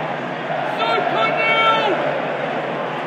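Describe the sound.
A football crowd turning against its team during a poor display, growing restless: a steady wash of massed voices with shrill whistle-like jeers rising briefly in the middle before settling back into a dense, discontented murmur.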